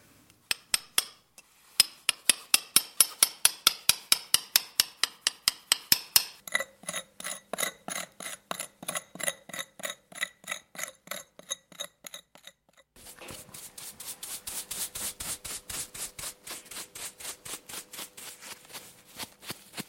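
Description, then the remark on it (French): Hand tools scrape and tap in steady, rapid strokes at an archaeological excavation site, the rhythm shifting across three stretches of work, sharp gritty impacts repeating with no voices. “Et nous sommes allés écouter un peu les bruits qu'on entend sur un chantier.”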